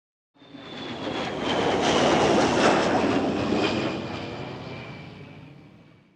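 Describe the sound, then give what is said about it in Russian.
An airplane passes low overhead on its landing approach to Sheremetyevo airport, its broad engine roar swelling to a peak and then slowly fading, with a thin whining tone gliding downward throughout. “Вот самолет заходит на посадку.”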